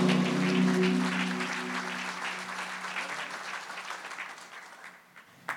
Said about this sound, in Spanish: Vamos a darle un aplauso a Dios en esta noche.